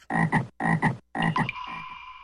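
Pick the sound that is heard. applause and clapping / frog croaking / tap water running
frog croaking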